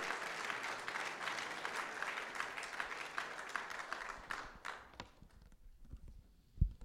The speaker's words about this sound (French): Est-ce qu'on peut l'applaudir le Seigneur ce matin? Béni soit Dieu.